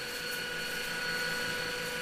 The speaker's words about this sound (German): Jetzt muss der Staubsauger ähm, Sachen machen. Unangenehm. Der Roboter. Was, Unangenehm. Was macht er jetzt? Dazu? Sich aus, absaugen.